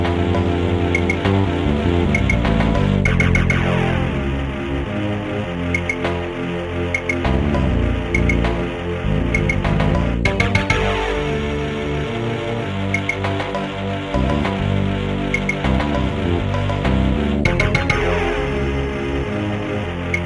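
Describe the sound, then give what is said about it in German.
An atmospheric, ambient video game soundtrack plays on its own, with layered sustained synth tones forming a dense, steady wash of sound at an even volume and occasional swells. “ich finde, wenn wir jetzt zum Beispiel mal den ersten anhören, das ist so ein Soundteppich, der so die Stimmung des Spiels definiert und finde, dass das einfach ein sehr, sehr stimmungsvoller Track ist.”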